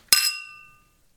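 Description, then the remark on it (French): A single bright clink of glasses touching in a toast, with a sharp attack and a clear ringing tone that fades away over about half a second, heard alone with no talking. “On trinque!”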